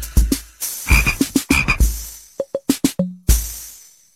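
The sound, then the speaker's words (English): A frog croaks loudly, a quick series of about a dozen short, raspy croaks in an uneven rhythm, with brief pauses between bursts and no other sounds. “F is for frog.”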